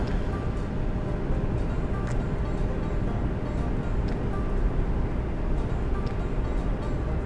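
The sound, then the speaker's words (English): A Mustang muscle car with 4.10 gears runs in fifth gear, its engine giving a steady, heavy low rumble and road drone, continuous for several seconds with no clear change in pitch; it is the first drive since an oil change. “This is the first time I've drove it since I changed the oil in it.”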